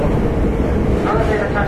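A loud, steady low rumble from a Hankyu 8000 series limited express train running on the Kobe Line from Shinkaichi to Umeda, its noise continuous and broad without any clear rhythm through the short stretch.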